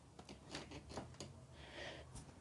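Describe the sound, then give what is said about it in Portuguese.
A TV is pushed a little aside with a few short scraping and bumping noises, then a longer sliding scrape. Quiet movement with no talking. “Isso foi o som de eu afastando a TV um pouco.”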